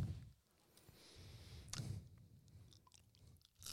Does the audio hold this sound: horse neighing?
no